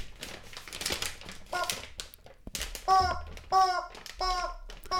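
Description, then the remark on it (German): Busy crinkling of Christmas wrapping paper around a cylindrical package about 30 cm long, soft at the top, being felt by hand for a couple of seconds, then a series of loud, squeaky honking bursts in a quick rhythm as the rustling continues. “Schön eingepackt in Weihnachtspapier.”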